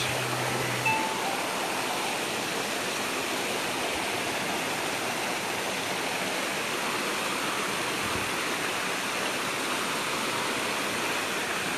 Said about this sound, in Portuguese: Ouça o barulho das águas.